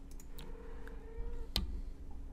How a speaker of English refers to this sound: I hear you, kitty. My cat is making sounds. I heard her.